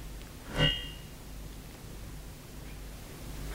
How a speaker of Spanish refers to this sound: viento de la montaña.